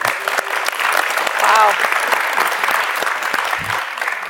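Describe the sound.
Steady audience applause, a dense crackle of many hands clapping that holds at a fairly even level for several seconds, swelling slightly in the middle before easing off, with faint voices mixed in.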